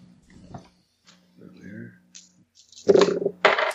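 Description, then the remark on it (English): Dice clatter and tumble across a hard tabletop in two sharp bursts of rattling clicks near the end, following a few moments of quiet, indistinct talk. “I rolled a 12.”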